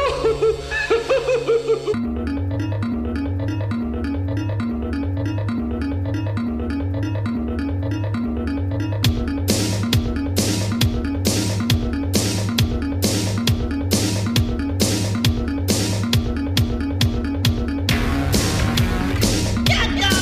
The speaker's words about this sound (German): wir leiten es ein mit dem …